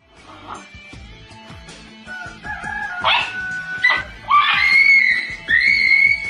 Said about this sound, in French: c'est des combats de coq, mais on n'a pas de poule.